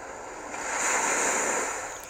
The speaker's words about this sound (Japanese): 海に来ていまーす。嘘です。これは、か っこ自然音中黒、海の音、かっこ閉じ、南、南国、中黒癒しの海波の音でリラックスする3時間30分